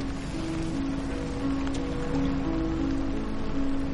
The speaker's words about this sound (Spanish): Llueve.